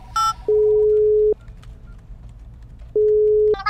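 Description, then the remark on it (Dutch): Telephone dialing tones as a call is placed to agent Willemsen: a quick high beep, then two long, steady electronic tones separated by a pause of about a second and a half, clear with no one talking. “Goed zo, bel ik agent Willemsen weer even, hè?”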